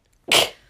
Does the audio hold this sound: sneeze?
yes